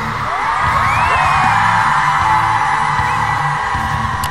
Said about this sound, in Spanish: Por todas nuestras compañeras, vamos a gritar fuerte.